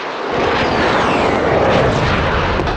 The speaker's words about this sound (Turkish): Komandolar Irak'ın kuzeyinde, Haftanin'de. Onlar karadan ilerlerken obüs ve roket atarlar da hedefleri yerle bir ediyor.